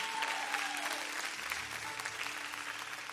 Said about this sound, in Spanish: Porque esta es la pareja más joven. Un fuerte aplauso a la pareja más joven.